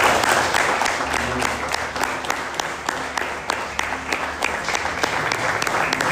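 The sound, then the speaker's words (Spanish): A church audience breaks into sustained applause for the Lord during a morning service, dense overlapping claps forming a steady, bright wash of sound with a few sharper hand claps standing out, holding at an even loudness throughout. “¿Por qué no le damos un aplauso al Señor por felicidad?”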